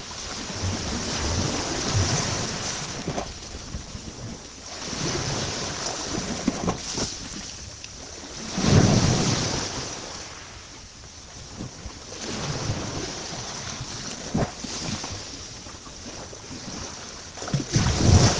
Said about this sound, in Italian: Queste che sentite non sono le onde del Mediterraneo che circonda la Sicilia, sono le onde del mio mare, a Positano, che mi ha mandato un amico.